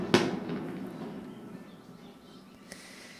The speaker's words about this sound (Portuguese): e fogos de artifício no céu acontecem exatamente nesse momento em que eu estou aqui, dia 26 de julho de 2020, às 6h45, gravando esse presente para você.